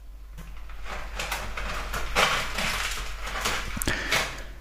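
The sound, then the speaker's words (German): A male cat scratches and digs in its litter box while using it, making a run of irregular, gritty scraping bursts with a steady low hum underneath and no voices. “Mein Kater ist auf Klo und der ist gerade dabei zu scheren.”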